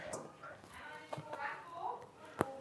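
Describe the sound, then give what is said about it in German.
A woman in labor in a bath vocalizes through strong contractions somewhere in the distance, with faint, drawn-out moaning tones that rise and fall, ending with a brief sharp knock. “Da ist äh, vermutlich gerade eine Frau im Bad, die starke Wehen hat.”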